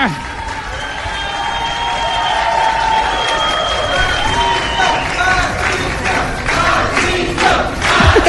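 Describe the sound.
A crowd shouting "¡Presidente!" and cheering loudly and continuously, many voices overlapping in a dense, steady roar with scattered higher-pitched yells rising above it.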